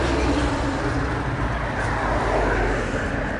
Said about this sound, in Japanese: 今日は歩きながらで車が横をたくさん通るのでちょっと聞きづらかったかもしれません